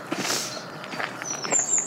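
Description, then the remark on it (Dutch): Footsteps of people walking outdoors through trees to watch the sunrise, a steady series of soft steps on open ground, with a faint high chirp-like tone entering near the end and no voices. “Uh, wij lopen hier.”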